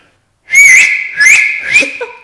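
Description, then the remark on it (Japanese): A loud, shrill whistle blown for cheering at competitions, in three sharp bursts, each holding a high piercing pitch with breathy noise, the last one trailing off with a slight warble. “県大会とかの決勝とか行ったりするとやっぱりみんな白熱するんですよね応援するときに、この時にこれが鳴らせるとあのでも僕よりももっともっと大きい声出すああの笛の音を鳴らす講師たちがいっぱいいたから僕の音はよっぽど練習しひんかったらならなかったんですけども今もだいぶ下手になりますよね。”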